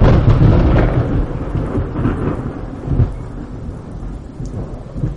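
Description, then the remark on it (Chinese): Heavy rain pours steadily while deep thunder rumbles continuously underneath, swelling in a few loud rolls, with no voices present. “满世界就只听见哗哗的雨声和骇人心魄的惊雷声。”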